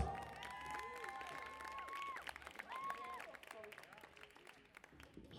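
A crowd applauds steadily, with dense clapping mixed with shouts, cheers and rising whistle-like calls, fairly loud at first and easing slightly toward the end.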